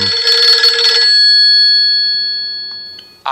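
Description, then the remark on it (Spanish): A mobile phone rings during an interview with a bright electronic tone, a busy burst of notes that leaves a sustained ringing fade, then the ring starts again abruptly at the end. No one speaks. “si llevas un dispositivo ah, portable de vigilancia y seguimiento, por favor, apágalo.”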